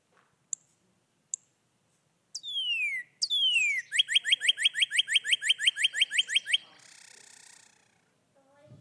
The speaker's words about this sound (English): Did anyone guess that? Bam! Chickadee dee dee dee.